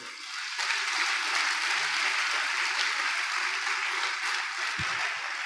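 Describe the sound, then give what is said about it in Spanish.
A church audience applauds the Lord in a steady, dense wash of clapping that swells quickly and holds at an even level for several seconds, with no voices over it. “¿Qué tal si le da un buen aplauso al Señor por ello?”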